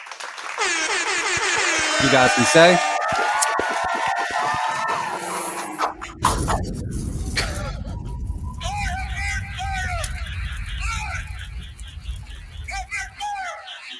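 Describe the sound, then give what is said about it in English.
A blaring horn-like sound effect gives way to a sustained burst of crowd applause and cheering for the producers of eight beats, loud and continuous for several seconds, with a voice speaking briefly over the start. “Round of applause to all the producers.”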